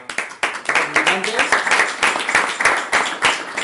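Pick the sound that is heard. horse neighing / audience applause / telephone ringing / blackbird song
audience applause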